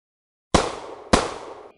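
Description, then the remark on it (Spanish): Two sharp, loud pistol shots about half a second apart, each a sudden crack followed by a short echoing tail, with no voices around them. “Distingue el disparo de una pistola y el descorche de una botella de champán.”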